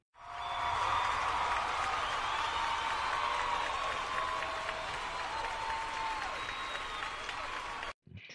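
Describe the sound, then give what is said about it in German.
A dense wash of crowd applause with scattered cheers, used as an inserted sound effect, steady and loud for about seven seconds before cutting off abruptly near the end. “Ich glaube, ich schneide schneid Applaus an der Stelle rein.”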